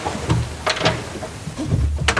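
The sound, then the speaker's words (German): A door is opened to let a cat in, with a few short rattling clicks and scraping bursts of handle and latch spread over a couple of seconds, with no talking. “Ich mach mal eben auf.”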